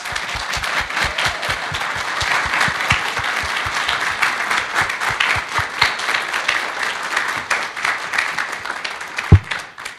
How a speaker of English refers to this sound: The church has a gift for you guys, so we just wanted to give that to you tonight. We just want to tell you how grateful we are. Why don't we have, give them a round of applause?